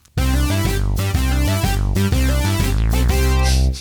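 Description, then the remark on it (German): A short, bright homemade synth jingle plays alone at steady loudness: chunky repeating chords with a bouncy rhythm and a rising sweep, lasting a few seconds with no voices. “Äh, jetzt hör dir mal das tolle Jingle, was ich gemacht habe, einfach mal an und dann sag mir mal, wie du es findest.”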